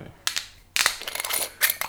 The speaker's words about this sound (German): Wieder mal geschickt den Korken rausgezogen. Mit der Hand.